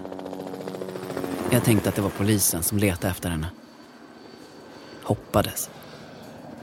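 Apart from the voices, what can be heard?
helicopter hovering overhead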